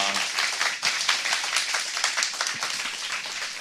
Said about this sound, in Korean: 여러분 다시 한번 큰 박수로 맞이 주시죠.